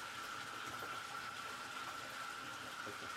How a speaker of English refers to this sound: Oh, hold on, before I tell this, let's get some more water in this motherfucker. I don't even know if y'all can hear me with that going on.